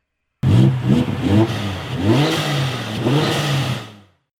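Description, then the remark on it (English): A primitive chemical combustion engine revs up and roars in several loud surges as a pedal in the floor is pressed, its pitch rising and falling with each press of the throttle, with no voices. “Ridiculously primitive, and yet, I found when I pressed my forehoof on a pedal in the floor, the engine roared.”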